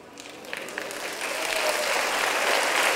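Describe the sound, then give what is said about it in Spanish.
An audience applauding after the preacher asks them to clap, starting as scattered claps and swelling into steady, dense clapping that grows louder throughout. “No todos están aplaudiendo, ¿ven?”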